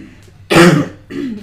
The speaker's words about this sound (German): Ach ja, ich entschuldige mich auch noch ein bisschen fürs Husten, weil ich bin noch ein klitzekleines bisschen erkältet.